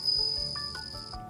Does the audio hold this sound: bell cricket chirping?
yes